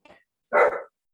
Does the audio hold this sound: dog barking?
yes